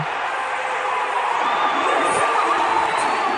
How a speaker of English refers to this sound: Eddie Hall deadlifted 500 kilograms. Now, if you want to know what that sounds like, it's kind of like this. There's a crowd cheering.